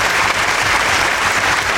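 A crowd applauding steadily, dense overlapping hand claps forming a loud, continuous wash of sound with no voices.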